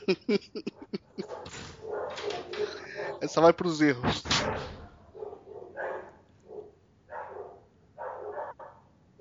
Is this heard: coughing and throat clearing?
no